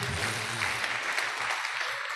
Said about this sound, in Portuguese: Uma salva de palmas para as mulheres dessa igreja